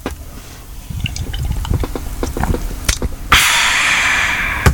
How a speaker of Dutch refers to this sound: Want een slokje bier nemen hoor. Neem ik even een slokje. Even, nu. ja, is goed. even samen een slokje eh, nemen.